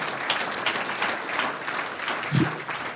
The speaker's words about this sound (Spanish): Un aplauso al Dios de la gloria.